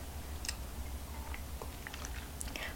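Someone quietly sips a morning coffee without sugar, with a few soft, wet slurps and small mouth clicks scattered irregularly over a low steady hum; no one speaks.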